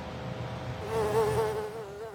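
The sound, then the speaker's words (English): A mosquito's thin, whining buzz hovers, wavering slightly in pitch as it drones continuously, growing louder after the first second with no voices present; a summer mosquito. “I get eaten alive those annoying mosquitoes that come out in full force in the summer”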